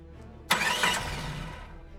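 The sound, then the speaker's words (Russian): A car starter cranks abruptly after a brief pause in the rain, grinding for about a second before fading out, fairly loud, as the engine struggles without catching. “Водительское сиденье было полностью мокрым, но он, не обращая на это внимания, начал заводить машину.”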